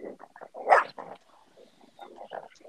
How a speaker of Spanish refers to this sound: Muchos perros se están matando.